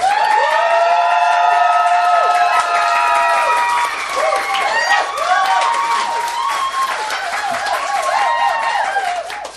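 A crowd applauds loudly and steadily for about ten seconds, with dense clapping mixed with high whoops, whistles and cheering shouts that rise and fall throughout.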